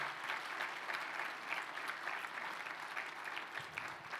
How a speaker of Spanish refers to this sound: Bien, dan un fuerte aplauso al Señor por las mamás de esta iglesia, por la maestra.